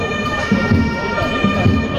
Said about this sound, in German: ja jetzt hier mehr Martinshorn als alles andere in unserem Format. Aber das muss auch mal sein.